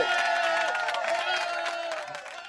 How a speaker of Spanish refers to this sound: Esa, es la de aplausos, ¿no? Sí.